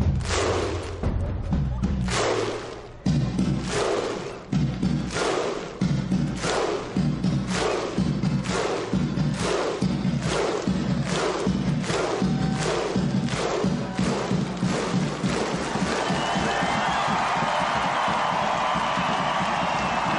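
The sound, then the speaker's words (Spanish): A huge stadium crowd of Iceland football fans performs the slow, booming Viking thunderclap chant: synchronized claps each answered by a deep shouted 'huh', repeating and quickening steadily, ending in a roar of cheering. “Seguramente os suena este grito que recuerda a aquella civilización extinguida que recorría los mares y que se convirtieron en un rudo pueblo que conquistaba tierras más allá de las aguas del Océano Atlántico.”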